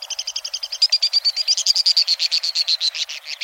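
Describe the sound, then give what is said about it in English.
White-throated swift (Aeronautes saxatalis), a very fast bird with 15-inch wings, calls in a canyon: a long, rapid, high-pitched trill of evenly spaced chattering notes that drifts slightly downward in pitch, heard alone for a few seconds with no voices. “Flying at tremendous speed, the white-throated swift is indeed swift, among the fastest of all birds.”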